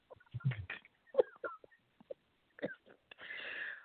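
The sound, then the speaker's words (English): A woman sneezes, preceded by a few sharp, wheezy vocal bursts and followed by a long, hissing breathy rush of air. “What's, what's she sneezing?”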